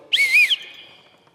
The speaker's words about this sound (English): The dad, when he blows the whistle,